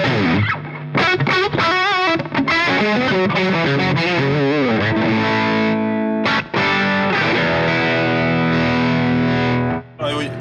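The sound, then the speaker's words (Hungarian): A loud, heavily distorted electric guitar plays through an amp, with bending, wavering notes early on and then sustained, gritty chords ringing out, dense, with brief gaps near the end. “hát nem esik le úgy a hangszíne, nem, nem, egyszer csak, mi olyan, mint csak a gént most csavargatták.”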